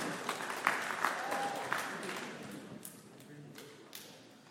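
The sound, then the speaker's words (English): An audience claps for a speaker as he comes up to speak, a fairly soft burst of applause with a few sharper individual claps standing out before it gradually thins and fades over a few seconds. “So let's give him a round of applause as he comes up.”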